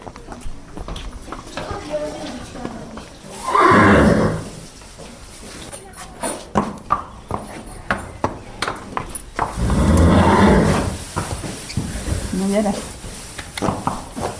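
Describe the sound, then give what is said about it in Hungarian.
Horses, including one or two stallions kept in a paddock and stable, neigh in two loud, drawn-out bursts a few seconds apart, while sharp, irregular hoof clops sound throughout. “Hát ők legelőn vannak alapvetően, úgyhogy a legelőre kerülnek vissza csak azok vannak benne, akik kiképzés alatt vannak, illetve egy-két csődörünk van, aki karámban, illetve az istállóban van.”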